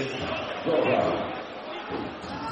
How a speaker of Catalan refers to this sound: Falta personal de Guillem Jou, que ara el públic es posa dret i l'aplaudeix eh, amb ironia cap a l'àrbitre.